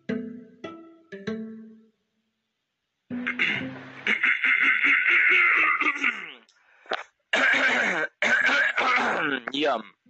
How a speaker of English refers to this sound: After I coughed up like 10 diseases there.